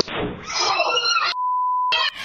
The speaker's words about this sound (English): Once I got a clear sight of this large firework, I had about a split second before it popped off and then truly blew up.